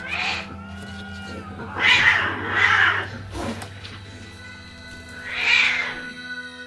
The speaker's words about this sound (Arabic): الغفير قالوا إنه كان سامع صريخ ونونوة طول الليل